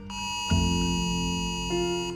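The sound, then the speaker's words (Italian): A loud, steady electronic emergency alert tone blares continuously from all the mobile phones in an office at noon, with layered pitches shifting as more phone alerts join in, without any speech. “Alle 12 in punto, all'improvviso, su tutti i cellulari è scattato un allarme.”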